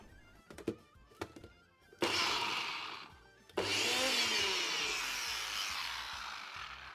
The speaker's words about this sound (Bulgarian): Първо смилам лук и магданоз в нутри булета.